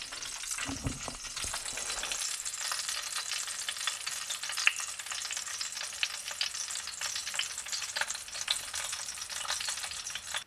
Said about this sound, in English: Here's a recipe that I'm making right now. You might be able to hear the sizzle in the background.